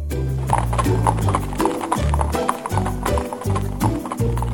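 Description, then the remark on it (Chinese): Horse hooves clip-clop in a steady, loud rhythm as Don Quixote mounts and rides his horse, the sharp knocks repeating continuously over a low rumbling background with no voices. “唐吉诃德不再反驳，默默地骑上马背。”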